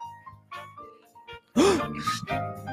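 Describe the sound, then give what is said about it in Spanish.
A voice mimics a suspense sound effect, humming a few short dramatic tones before a sudden loud, breathy swell that sounds like a gasp or sigh, close and fairly strong. “Ruido de suspenso.”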